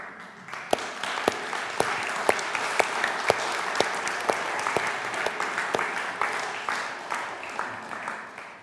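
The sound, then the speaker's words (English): Sustained applause from an audience for the women of Gateway, a dense wash of many hands clapping at steady loudness for several seconds, with a few sharper individual claps standing out above the crowd. “I think it would probably be appropriate at this point just to applaud the women of Gateway.”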